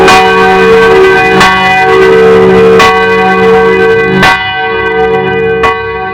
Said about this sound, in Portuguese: Naquele momento, dois sinos ensurdecedores tocaram por toda a sala. Eles não soavam mais como pequenos sinos, pareciam mais com enormes sinos de igreja sendo tocados com uma marreta e apenas alguns centímetros de sua cabeça.